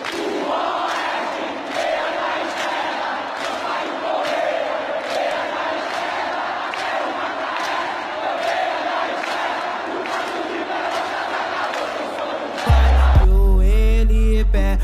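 A dense crowd of Ceará football fans chants together in a steady rhythm in the stands of the Castelão stadium, with regular beats or claps, loudly for about twelve seconds before music abruptly cuts in.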